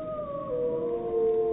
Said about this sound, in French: C'est un enregistrement de deux loups, d'une meute de deux loups. On, on vibre en fait. C'est ça qui est bien, c'est que on entend à la fois les hurlements et on peut aussi communiquer avec les loups.